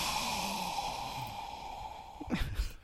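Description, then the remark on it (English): A voice imitates a pet parrot's copy of the low, drawn-out groan of effort a person makes getting up off the couch, ending in a short breathy exhale. It is fairly quiet. “imitating the noise I made getting you were up making off the like, couch”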